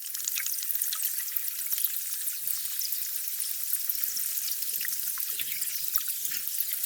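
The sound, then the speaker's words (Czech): Continuous underwater crackling and fizzing of melting glacier ice, recorded in the water by a disintegrating glacier, a dense bright hiss dotted with countless tiny pops, chirps and bubbly clicks, steady throughout with no voices. “To je totiž ten zvuk toho pípání a, a různého jako cvrlikání vlastně zvuk tajícího ledu.”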